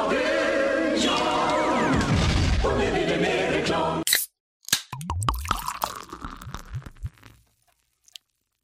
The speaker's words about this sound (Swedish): Yes, en dryck som hälls upp. Det är ju gott oavsett om det är med alkohol eller inte. En Loka eller vad det nu kan vara.